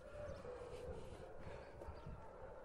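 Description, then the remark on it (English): Several dogs at an old prison turned kennel howl, long wavering siren-like cries that blend together over a steady, noisy background, faint but continuous throughout. “Ah, now it's definitely a place for dogs. Sounds like a crazy place for dogs.”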